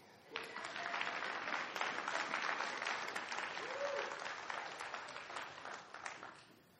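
An audience claps together in a steady, dense burst of applause lasting several seconds, with a brief murmur of voices underneath before the clapping gradually thins out.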